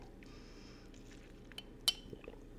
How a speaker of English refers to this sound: Excuse me. I'm going to just take a quick sip.